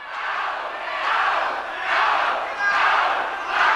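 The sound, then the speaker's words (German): A large crowd of about 1,000 conference guests shouts and jeers at protesters in loud, overlapping voices, the roar swelling and easing in rough waves about every second or so, with no single voice standing out. “Die etwa 1000 anwesenden Gäste sind schockiert. Sie beginnen zu rufen.”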